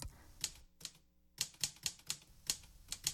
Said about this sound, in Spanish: El novelista, en mangas de camisa, metió en la máquina de escribir una hoja de papel, la numeró y se dispuso a relatar un abordaje de piratas.